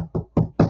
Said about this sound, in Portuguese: é, ele pegava a mesa e batia na mesa, né? Isso, é, isso aqui é o quê?